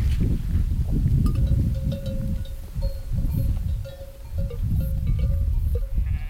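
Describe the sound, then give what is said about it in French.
A flock of sheep bleats continuously outdoors in an alpine pasture, with many overlapping calls, light clanking of bells and a steady faint tone running through, no talking. “Mes chers brebis, sachez qu'aujourd'hui, dans notre alpage, la chaume ne sera plus autorisée.”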